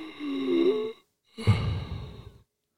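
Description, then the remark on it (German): A voice imitates heavy breathing down a phone line: a long inhale, a short pause, then a rougher exhale, each about a second long, moderately loud. “Ah, er atmet noch.”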